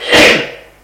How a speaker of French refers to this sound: Ouvre un tiroir pour prendre une clé.